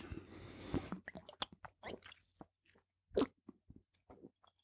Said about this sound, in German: Aber trotzdem stelle ich es mal ein bisschen an die Seite, weil ihr wollt ja mich nicht trinken hören, ihr wollt ja Neuigkeiten von mir hören.